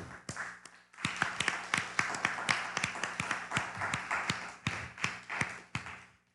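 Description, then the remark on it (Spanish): A short round of applause: crisp, sharp hand claps from a small group rattle along irregularly for several seconds after a brief pause, then stop abruptly. No one speaks. “Un fuerte aplauso también.”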